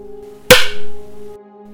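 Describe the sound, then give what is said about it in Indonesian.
One sharp, loud knock in a dark hotel room at night, seemingly not a knock on the door, with a brief ringing decay, standing out against a steady low electrical hum. No one speaks. “Ketika baru saja terlelap, tiba-tiba aku mendengar suara ketukan.”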